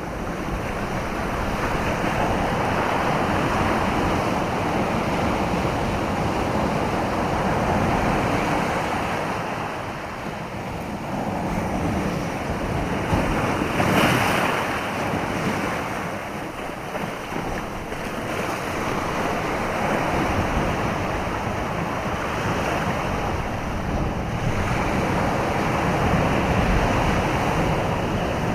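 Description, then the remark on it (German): Ocean waves break on a shore in a steady, loud roar of surf that swells and recedes every few seconds, with wind rushing underneath and no voices. “Und zwar, wir werden jetzt zwei Stunden lang Meeresgeräusche abspielen.”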